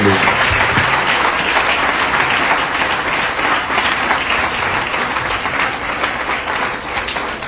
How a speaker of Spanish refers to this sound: y lo recibimos aquí en el auditorio con un lindo aplauso de alabanza al Señor y bienvenida para predicar.